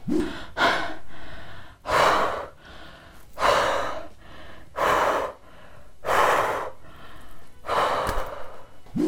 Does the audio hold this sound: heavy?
yes